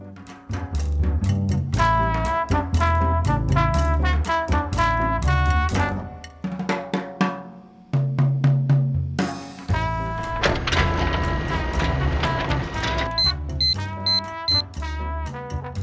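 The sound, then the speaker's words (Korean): A printer whirs and clunks through its feed cycle with whining motor tones, then pauses and gives a run of short, high electronic beeps near the end as it runs out of paper. No one speaks. “아 종이가 없네 새 종이를 아니다 이면지 써야겠다 어차피 내가 보려고 뽑는 건데”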